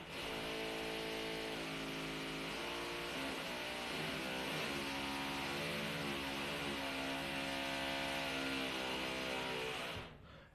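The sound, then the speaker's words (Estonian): Renovation work in the next room: a loud, steady mechanical drone like a power tool, its buzzing pitch wavering up and down for about ten seconds before cutting off abruptly. No one speaks. “tüübid hakkasid lambist remonti tegema kõrvalruumis.”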